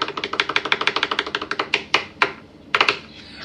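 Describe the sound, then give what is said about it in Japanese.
A drum roll: a rapid, even stream of crisp, bright snare taps that slows into a few separate hits, then ends with a short final burst. No one speaks. “はい、ではね、早速回したいと思います。ドラムロールスタートは”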